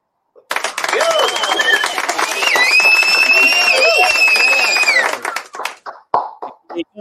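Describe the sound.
An audience bursts into loud, steady applause for about five seconds, with high whistles ringing over the clapping midway, before it fades and someone starts talking.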